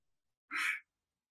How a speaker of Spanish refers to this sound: Mm, un jadeo peculiar interrumpió a la princesa.